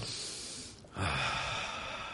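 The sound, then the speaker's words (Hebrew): A single deep breath drawn in through the nose, fairly loud, a breathy hiss that swells after a brief lull and lingers for over a second, with no talking. “נשימה שאתה יכול לנשום.”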